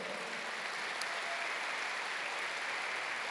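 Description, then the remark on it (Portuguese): A church audience applauds the Lord steadily, a dense, even wash of many hands clapping at a constant moderate level with no pauses and no voices rising above it. “Aplauda o Senhor, porque realmente esse é o nosso Deus.”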